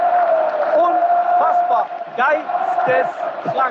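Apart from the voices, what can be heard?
football stadium crowd cheering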